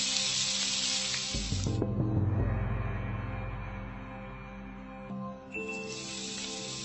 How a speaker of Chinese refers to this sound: 两个人就是这样的想法，一坐下就听见了在厨房中传来的猛火烹油的滋滋声。